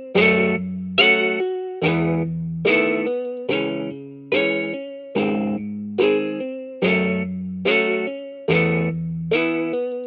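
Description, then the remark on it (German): A slow, broken-up synth chord with a guitar-like tone from an Omnisphere plugin, struck about every second in a steady rhythm, each hit loud with a bright attack that fades before the next, with no talking. “Und der hat so eine ganz weirde Art gehabt, eine ganz langsame Art, so aufgebrochen, diesen Akkord zu spielen.”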